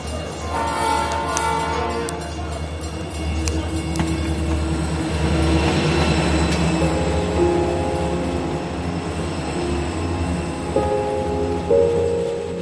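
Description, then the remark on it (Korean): A train rumbles past, a steady heavy roar with metallic ringing, while sustained horn-like tones sound over it toward the end. No voices. “경적 소리와 함께 또 열차가 지나갔다.”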